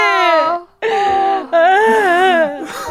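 A person cries in loud, drawn-out wails, three quavering bursts of high, wobbling voice separated by short gasping breaks, with no other sounds around them.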